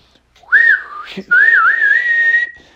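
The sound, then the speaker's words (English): A loud human whistle calling a gigantic golden osprey, in two sustained phrases: a short rising and wavering call, a brief pause, then a longer warbling whistle that levels off before cutting out. No talking. “he whistled out.”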